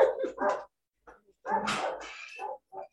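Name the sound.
dog barking outside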